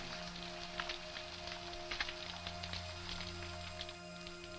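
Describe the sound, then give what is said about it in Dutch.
Dense, crackling clicks of snapping shrimp fill the water like distant static, with scattered louder snaps over a steady low underwater hum and drone. “Vanuit de verte klinkt het gekastanjet van garnalen.”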